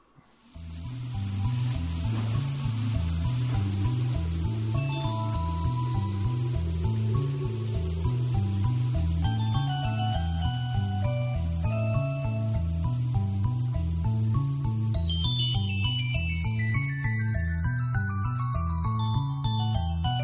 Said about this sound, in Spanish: Eh, ¿Cómo adaptar una canción rockera a música para bebés? Para que los bebés vayan conociendo la música. Los dos para bebés suenan así.